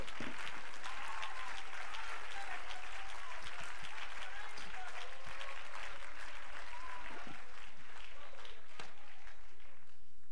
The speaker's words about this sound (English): Come on, clap your hands and let's give praise to the Lord.